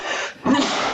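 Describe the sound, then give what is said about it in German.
A single sneeze: a short breathy intake, a brief pause, then a sharp, loud, noisy burst that trails off. No one speaks. “Gesundheit”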